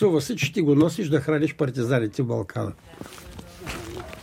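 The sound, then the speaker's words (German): A voice speaks at first, then gives way to slow, quiet footsteps with a walking stick tapping as a man walks down an old cobblestone street, a few soft, uneven steps against a faint background hush. “greift seinen Gehstock und geht mit langsamen Schritten eine alte Kopfsteinpflasterstraße hinab.”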